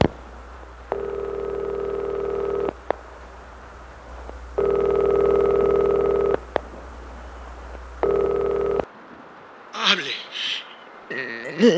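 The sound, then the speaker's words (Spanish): A telephone ringback tone buzzes in three long, steady pulses with pauses between, heard down the line, before a voice answers and begins speaking. “Se pone una bata y se acerca a la mesita donde tiene el teléfono.”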